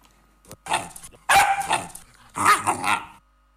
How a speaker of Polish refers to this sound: E, pies numer dwa mówi tak.